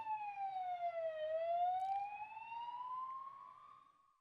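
An ambulance siren wails past, its pitch sliding down and then slowly climbing again, loud and steady over a low rumble of traffic.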